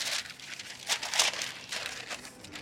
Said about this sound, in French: Et il faut faire attention avec les rougets, que ça accroche. Donc la technique, c'est de prendre un morceau de papier sulfurisé et le mettre dans votre poêle.